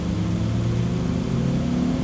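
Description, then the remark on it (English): A taxi engine hums with a steady, low droning tone as the car drives away from Hotel Iridori in Taigi, headed to the harbor. It holds an even, fairly loud level throughout with no voices. “Watching the car disappear, Mr.”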